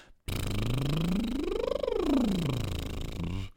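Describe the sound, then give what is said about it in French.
A voice performs a buzzing lip trill that glides steadily up in pitch and then back down, a single smooth siren sweep lasting a few seconds, fairly loud, as a vocal warm-up exercise to gently wake the vocal cords. “Ça, c'est pour réveiller les cordes vocales en douceur avec des petites sirènes, comme on veut.”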